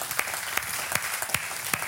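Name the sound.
audience clapping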